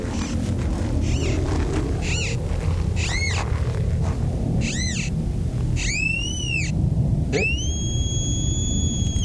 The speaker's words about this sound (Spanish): Esto es un detector de, metales